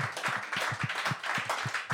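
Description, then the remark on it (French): Applause from a live audience: steady, distinct hand claps, fairly loud, continuing at a quick even rhythm for about two seconds with no one speaking. “je vous applaudis. Vous pouvez hein, vous applaudir.”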